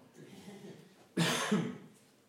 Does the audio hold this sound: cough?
yes